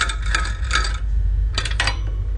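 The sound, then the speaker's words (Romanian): A fan with a broken blade clangs in a rough, repeating rhythm, four sharp metallic strikes in two pairs over a steady low motor hum, fairly loud, before the broken blade falls off. “Clang, clang, clang, clang, clang. Și a căzut, mamă, că asta deja ieri am intrat pe site-uri.”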